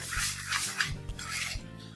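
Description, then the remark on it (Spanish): A fork scrapes and stirs through dry flour with a little salt in a bowl, making repeated raspy, scratchy strokes at a steady, brisk rhythm with no talking. “Vamos a mezclarlo con un tenedor, por ejemplo, para que se mezcle bien.”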